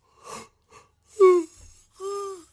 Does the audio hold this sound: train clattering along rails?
no